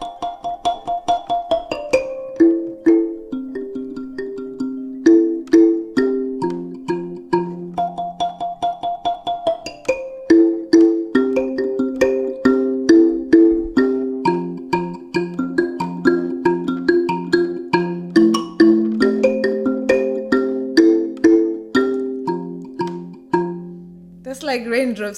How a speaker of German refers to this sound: Viele Leute sagen, der Klang der Embira hört sich an wie Regentropfen. Many people say it sounds like uh, raindrops.